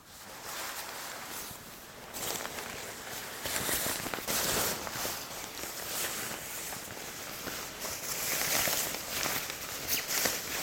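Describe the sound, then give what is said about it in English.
Fabric rustles and crinkles steadily for several seconds as a cloth is draped over a person's chest to protect it and smoothed before a facial cleanse, a dense, papery swishing with small crackling bursts and no voices. “I'm going to drape something over your chest just to protect it, okay?”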